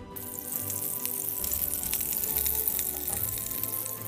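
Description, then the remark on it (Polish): Steady, crackling sizzle like hot oil hissing over something wet, dense bright crackles over a low rumbling bed, continuous for the whole stretch with no voices. Oil spilled from a lantern sizzles on a slime. “Część z oliwy z latarni wylała się na gluta, glut skwierczy.”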